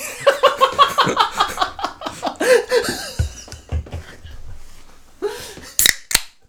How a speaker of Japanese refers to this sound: 開いた。はい、乾杯。乾杯。いやーこれね、ポッドキャストで一番やりたかったんですよね、この。そうね。飲みながら収録中にプシュってやるっていう、はい、うん夢は叶いました